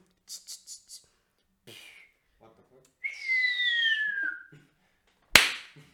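A firework imitated by mouth and hand: a long whistle sliding downward, then a sudden sharp, loud pop that rings out briefly, preceded by a few soft clicks.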